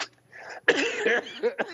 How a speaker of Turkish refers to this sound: Apşırmadım, öksürdüm.